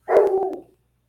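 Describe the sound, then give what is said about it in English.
A dog lets out a single drawn-out, whiny bark, fairly loud, with a few sharp clicks in it before it fades. No one speaks. “Mm, the dog's getting spry. He wants his dinner and a poop.”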